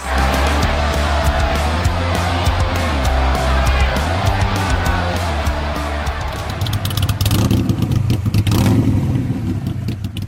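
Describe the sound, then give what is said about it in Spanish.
A motorcycle engine rumbles loudly for about ten seconds, its throaty idle rising and falling in a few revs before ending in a rougher, clattering burst. “Cerramos viaje musical en una última parada rockera dentro de este circuito recorrido en moto,”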